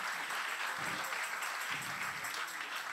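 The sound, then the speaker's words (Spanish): A crowd applauds steadily, dense clapping at a constant level for the whole stretch, with faint voices mixed in beneath it, applause given to the Lord. “Si le vas a dar el aplauso al Señor.”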